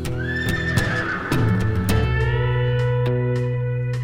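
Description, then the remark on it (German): A small mustang, Jumping Jack, gives a long, high whinny that slides and wavers, while sharp hoofbeats clop in an uneven rhythm underneath and continue after the neigh fades. “Und Lasseter weiß, dass ein kleiner Mustang erst mit dem Kampf beginnt, wenn man denkt, er sei erledigt, erschöpft, am Ende seiner Kraft.”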